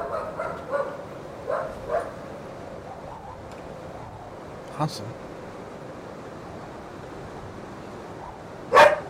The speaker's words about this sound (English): Sorry, two seconds. Gotta settle my dog down.